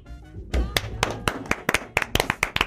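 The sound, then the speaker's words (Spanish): A few people in a studio clap their hands in a quick, uneven burst of sharp claps that grows denser toward the end, with some faint voices underneath. “No, nosotros te vamos a aplaudir.”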